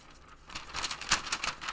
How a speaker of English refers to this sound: That's the sound of paper turning because I took paper notes on the page for this fight.